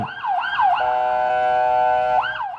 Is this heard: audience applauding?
no